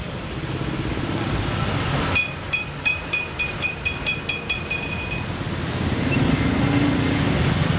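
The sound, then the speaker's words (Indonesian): Steady roar of busy main-road traffic with a heavy truck rumbling past, louder toward the end, while a quick series of about nine bright metallic clinks rings out in the middle, as a street vendor pushes a food cart along the road. “Ntar ada truk, ada truk.”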